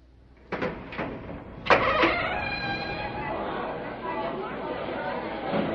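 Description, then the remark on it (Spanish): A heavy temple door is unbolted and swung open: two solid clunks, then a long, grinding creak that carries on over a murmur of voices. “¡Abre esa puerta, te digo!”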